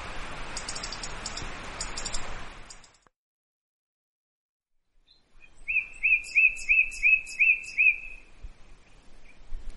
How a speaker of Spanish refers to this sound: Y bueno, voy a nombrarte algunas más. A ver si las conoces el petirrojo.